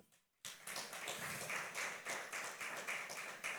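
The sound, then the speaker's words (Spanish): After a brief hush, a crowd bursts into steady applause for all mothers, many hands clapping together in a dense, sustained patter that stays fairly loud until the end. “Así de que ¿Por qué no le damos un fuerte aplauso a todas las madres?”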